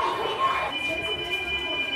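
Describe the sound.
A fire alarm rings with a steady, piercing high tone throughout during an evacuation of a children's daycare centre, under a noisy hubbub of indistinct, loud children's voices and shuffling footsteps as everyone goes down the stairs.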